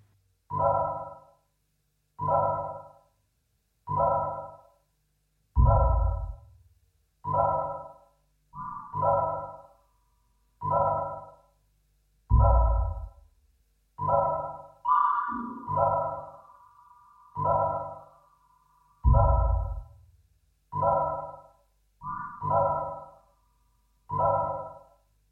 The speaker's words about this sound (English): Um, she's a sort of Colombian, she's definitely a Colombian, Berlin based uh, electronic music, soundscapey, sound art, minimalist. I like it a lot. This is from her brand new record